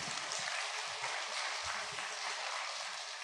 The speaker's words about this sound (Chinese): 让大家掌声欢迎他们上场。